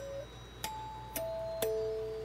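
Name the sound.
doorbell ding-dong chime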